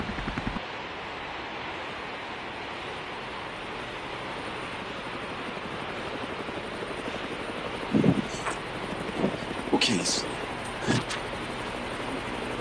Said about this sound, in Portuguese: É um helicóptero.